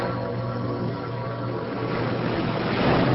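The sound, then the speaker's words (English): Ocean waves foam and crash against a reef in a continuous, loud rushing wash that swells slightly toward the end, with no voices present. “I stood in the middle of the sea. It was a reef upon which waves foamed, dashing violently onward.”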